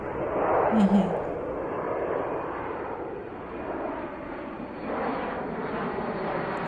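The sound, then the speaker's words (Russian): A steady, broad roar of a national airline's airplane engine passing overhead, delivering food from a restaurant in London to a palace in Thailand, loud and continuous throughout, swelling slightly near the end, with no voices over it. “доставку осуществляли э, самолеты национальных авиалиний.”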